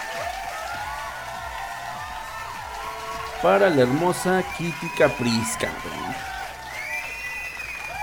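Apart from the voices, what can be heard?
applause sound effect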